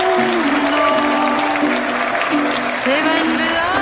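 Loud, dense applause fills the whole clip at a steady level, a continuous crackling wash of many clapping hands, with sustained voiced tones threading through it, as a singer is introduced.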